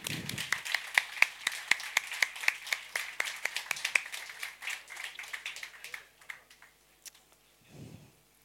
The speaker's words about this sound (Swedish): Jag säger välkommen upp till er. Vi ger dem en applåd.